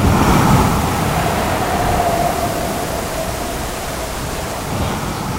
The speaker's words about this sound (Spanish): Escuchamos Sube, sube, sube el volumen del mar. Muy bien. Ahora viento. más viento. Rayos. Mar. Olas.